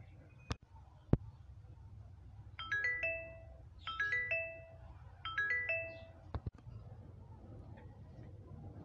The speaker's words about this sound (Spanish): Su celular emitió un pitido semejante a los de un mensaje.